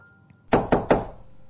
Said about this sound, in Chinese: 就在这个时候，门外第二次响起了敲门声